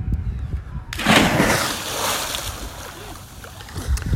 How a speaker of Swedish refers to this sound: Ska jag hoppa i. Det tycker jag. Jag lägger telefonen nära här så vi hör plumsen.